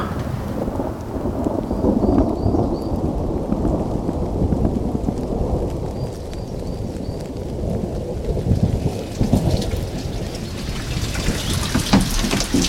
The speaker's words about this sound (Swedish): Regnar det? Det spöregnar.